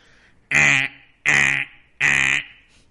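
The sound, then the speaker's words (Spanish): A person imitates a spoiler alarm with their voice, nose held shut, making three loud, nasal, buzzy honks evenly spaced in a steady rhythm, each lasting under half a second, with no talking. “Ahí está tu alarma de spoilers.”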